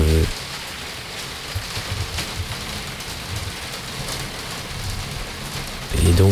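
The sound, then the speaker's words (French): Heavy rain of a big thunderstorm pours down steadily in a dense, hissing wash, with a voice just audible for a moment at the very start and end. “Un de ces gros orages euh, où avec la pluie qui mouille euh, très fortement.”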